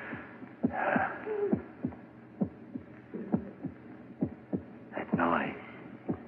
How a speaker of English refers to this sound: It's your heart beating, pounding, driving the blood through your veins. Beating more slowly now, slower and fainter, running down like a tired clock.